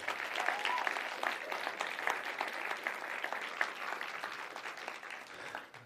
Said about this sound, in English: And if you love Jesus, can you give him a hand clap of praise this morning?